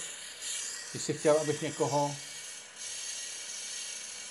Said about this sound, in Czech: Tohle je zvuk, který jsem měl dneska v 8 hodin ráno. Ale takhle to zní docela dobře. To je fréza asfaltová